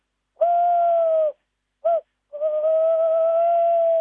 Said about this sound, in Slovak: Sovy nespie, nespievajú preto, aby proste mali takú dobrú náladu, sme v noci a nebáli sa, ale znova tie si už musia teraz hájiť tie svoje revíry, tak aj môžeme počuť sovu lesnú zaspievať aj z parku. Krásne.